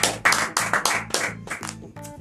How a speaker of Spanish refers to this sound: entonces así que quiero darle la bienvenida al artista pues responsable de todos mis tatuajes y pues lo quiero recibir dándole un aplauso